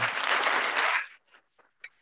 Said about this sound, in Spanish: Y hay que darle un aplauso